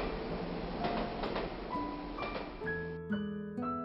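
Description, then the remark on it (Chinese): Train wheels clacking on rails: a steady rumbling noise broken by a few sharp, irregular clacks, with soft sustained musical tones joining in toward the end. No one speaks. “火车与铁轨撞击的声音。就像是一首动听的催眠曲，人们听着听着便进入了甜蜜的梦乡。”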